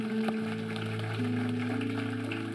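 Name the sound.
loud audience applause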